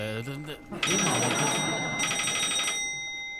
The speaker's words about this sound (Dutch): die telefoon weer. Nou, momentje hoor. Ik, ik neem hem even.